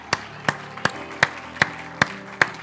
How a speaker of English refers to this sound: Would you give him a hand clap and a shout of praise before you're seated?